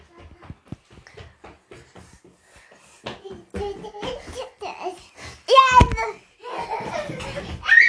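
A baby babbles in short bursts, then breaks into bright giggles and squeals, with high harmonic vocal sounds rising toward the end; clear, with no other voices.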